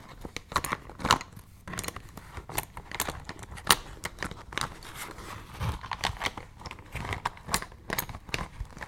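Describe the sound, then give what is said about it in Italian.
Small objects rattle and clack as someone unzips a pencil case and rummages through it, a steady jumble of light clicks, scrapes and rustles with no talking. “Apriamo la zip cerchiamo le cose dentro”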